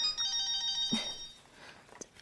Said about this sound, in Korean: 전화 왔다. 어, 어, 어 모르는 번호인데 누구지?